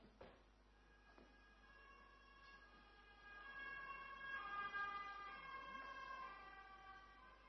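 An ambulance siren wails outside, its rising and falling tones swelling as it passes by, with faint road noise underneath and no one speaking.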